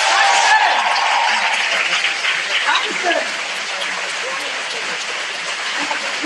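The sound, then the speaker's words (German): An audience applauds with dense, steady clapping that stays loud throughout, easing slightly after a few seconds, while a voice briefly speaks over the noise. “Das war ein Applaus.”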